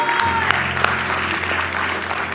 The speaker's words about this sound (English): Y'all can give me golf claps if you want to, but I'm thankful.